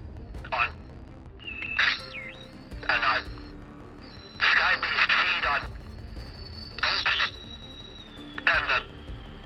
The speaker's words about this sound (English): Ugh, the message must have been scrambled. Scrambled? Interference from deep space cosmic radiation.